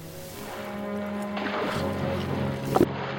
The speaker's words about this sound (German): Wir hören darin … nachts an Deck der Petrox Explorer.